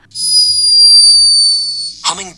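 A hummingbird snoring: one thin, steady, high-pitched whistling tone held for nearly two seconds, then cut off as a voice briefly begins speaking.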